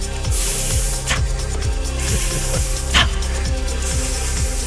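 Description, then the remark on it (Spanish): A dry ice fog machine sound effect, the first, 'hard' one of two played on W Radio, sprays a loud, continuous hissing blast, with a pulsing low mechanical rumble underneath and a couple of brief sharper bursts of spray. “Franco tiene dos hielos secos. Sí. El primero que es así hard, el que soltó, vamos a hacer la diferencia.”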